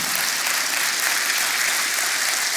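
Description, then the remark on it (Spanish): Steady audience applause for the Lord, a dense wash of many hands clapping at once, loud and even throughout with no voices standing out. “Yo quiero que usted le merece un aplauso al Señor, no a mí, al Señor.”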